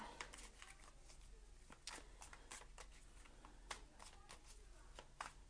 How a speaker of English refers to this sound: We're going to shuffle some more. I'm using the uh, Radiant Wise Spirit Tarot.